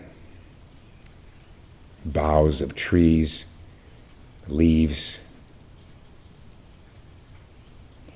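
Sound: soft rain falling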